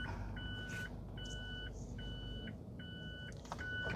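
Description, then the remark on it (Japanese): Steady electronic reversing beeps from a vehicle backing up a short way, five evenly spaced tones repeating about every 0.8 seconds, high-pitched and moderately loud over a constant low engine rumble. “ちょっとだけバックさせてくださいごめんなさいねよいしょ”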